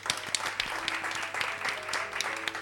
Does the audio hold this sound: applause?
yes